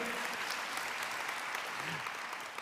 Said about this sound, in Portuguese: Aplauda ao Senhor. O Senhor vai te fortalecer.